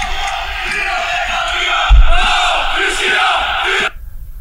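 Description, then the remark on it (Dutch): A large stadium crowd of Panathinaikos hard-core supporters roars and cheers steadily with a dense wash of clapping, loud throughout with a brief surge near the middle, then cutting off abruptly just before the end. “Er zit wel wat geluid bij, Frey. Wacht, hè. En schrijvers. Allemaal aan het klappen.”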